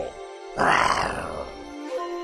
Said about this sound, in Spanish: Es momento de lanzar un gran rugido para el trío olímpico.